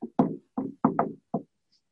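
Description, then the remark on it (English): A short run of close, hollow knocks on a door, struck in a quick, uneven rhythm with small pauses between them, then silence. No one speaks. “Um, and so, so that sort yeah, that that the four knocks by Wilf that got whoa, that was because you think it's the beginning of that episode”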